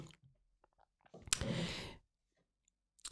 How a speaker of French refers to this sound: Je reprends une petite gorgée au passage.